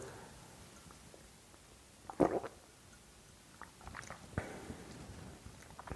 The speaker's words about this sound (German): vielleicht auch nochmal einen Schluck Wasser trinkst, so wie ich jetzt hier nochmal einen Schluck Tee gerade trinke.